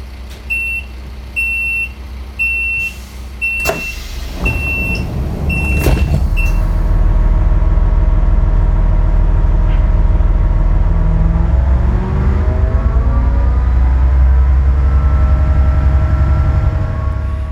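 Rhythmic door-warning beeps and a couple of heavy thuds as doors close on a VT2E diesel-electric railcar, built for private railways between 1976 and 1993, at Liederbach on the Frankfurt-Königstein railway in Germany. Its engine then rumbles steadily and rises in pitch as it pulls away; no voices.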